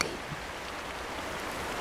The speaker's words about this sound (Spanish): Se trata del río donde jugaba don Teófilo, que comienza a escucharse por la inminente tormenta que se avecina.